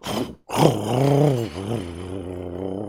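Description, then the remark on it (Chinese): A voice imitates a motorcycle being kick-started and revved: a short grunting burst, a brief pause, then a sustained, loud, buzzing roar whose pitch rises and dips like revving before settling into a lower drone. “我一脚踹着了摩托车”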